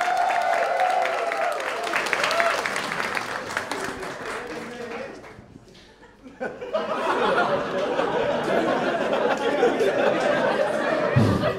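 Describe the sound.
An audience at a stand-up comedy show claps and cheers steadily for a comedian, with voices and whoops in the crowd noise. The applause briefly thins out midway, then swells back up and continues strongly to the end.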